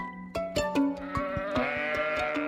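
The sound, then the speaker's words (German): Several sheep of a flock with a sheepdog, high up in the mountains, bleat in overlapping, wavering calls, one voice rising over another with no pause, a busy flock sound with a faint clatter of hooves or bells underneath. “mit all seinen Schafen und dem depperten Schnauzel, diesem Schäferhund, auf einmal ziemlich weit oben in den Bergen war”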